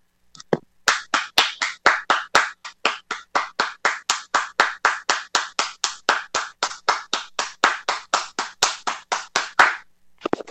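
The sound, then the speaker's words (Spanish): Applause following a poetry reading on a radio show: a steady run of brisk, evenly spaced claps for about nine seconds, loud and crisp with no voices, ending abruptly. “Aplausos, por favor.”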